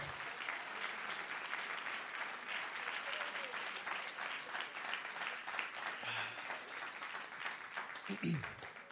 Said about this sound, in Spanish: Vamos, déle ese aplauso fuerte a él ahora.